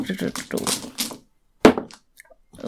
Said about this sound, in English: Too many dice in my dice tray.